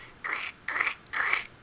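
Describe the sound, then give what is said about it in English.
Three short, crisp crunching bursts spaced evenly apart, a voice imitating crunchy lichen crackling underfoot while climbing up rocks, fairly quiet with brief pauses between each crunch. “and it's the sound of the crunchy lichen as you're like climbing up rocks.”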